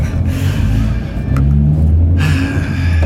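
A small car engine drones and revs, its low pitch rising and shifting unevenly as if straining through the gears of the car's broken gearbox, with a steady rumble throughout and no voices.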